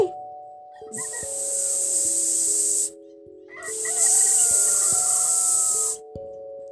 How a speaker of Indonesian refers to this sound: Selamat pagi, ular derik. Bangun, bangun. Sudah pagi.